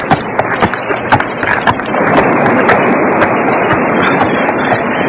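A horse's hooves splash and clop at an irregular pace as it crosses the flooded Serrano River, sinking deep, over a steady, loud rush of flowing water carrying sticks and logs that swells midway and continues to the end. No one speaks.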